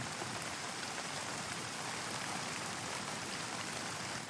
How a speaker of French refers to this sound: Et donc j'ai posé mes micros, puis j'ai attendu la pluie, la bonne pluie, et euh, elle est arrivée, un moment, mais au bout de plusieurs jours quand même.